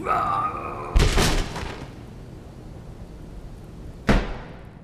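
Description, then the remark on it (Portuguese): A picture frame, thrown by a furious old man into an entrance hall, crashes and breaks with a loud, sharp impact that rings out briefly, followed a few seconds later by a second hard knock; the old man's shouting is heard just before. “Júlia escuta os gritos do velho e o som da moldura se quebrando.”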